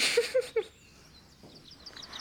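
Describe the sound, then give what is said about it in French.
A few sharp bird calls ring out at the start, then give way to faint, scattered chirping in the background against a quiet outdoor hush. “Tu entends ces oiseaux Mais quels oiseaux Ah, ceux qui sont dans le son que tu m'as demandé de passer en début de ta chronique Tu les entends pas, Apprête l'oreille”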